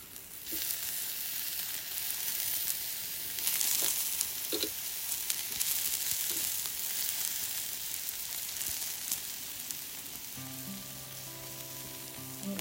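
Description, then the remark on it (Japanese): Meat sizzles steadily on a charcoal grill at a barbecue set up under the eaves on a rainy Sunday, a continuous crackling hiss with scattered pops. No one speaks, and a faint low hum joins in near the end. “炭火でお肉がジュージュー焼ける音とともに、どうぞお聞きください。”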